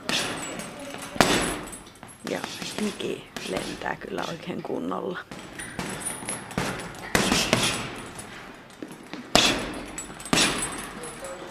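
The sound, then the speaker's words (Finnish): Several hard punches from a boxer thud into a heavy boxing bag at close range at uneven intervals, each strike sharp and loud, while people talk in between. “kun … vähän hakkaa säkkiä”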